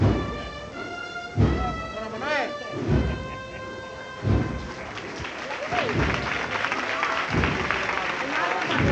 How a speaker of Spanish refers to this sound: Finaliza la revirada el público aplaude, buena cantidad de público aquí congregado.